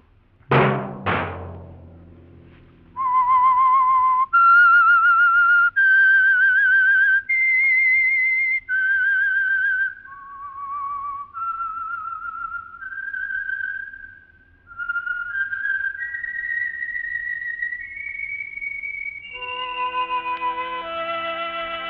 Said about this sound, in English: Let that whistle be your signal for the Signal Oil program, The Whistler each Wednesday night at this same time